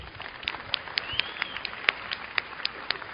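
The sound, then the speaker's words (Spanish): A crowd applauding for about three seconds for participants being thanked as they sit down: a steady wash of clapping with sharper individual claps popping out at irregular moments, moderately loud throughout with no talking. “Ya, se pueden sentar, muchísimas gracias, un aplauso para ellos.”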